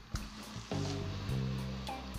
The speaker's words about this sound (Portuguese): Hora do gole d'água.